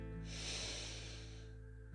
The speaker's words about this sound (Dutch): Adem in door je neus, vanuit je buik en adem uit door je mond. Neem even de tijd voor je ademhaling en voel wat het met je doet. Adem in en uit.